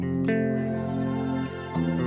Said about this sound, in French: Attends, on peut regarder les reverbs type shimmer. Tiens, là, il y en a là, des shimmer. Tiens, écoute.